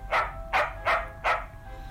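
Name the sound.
puppy barking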